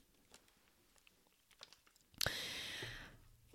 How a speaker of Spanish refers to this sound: Y deja que trague saliva y beba agua porque me estoy emocionando bastante.